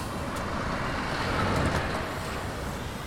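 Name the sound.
truck driving past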